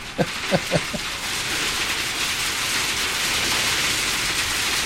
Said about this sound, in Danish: Mens vi sidder og snakker, begynder det at havle.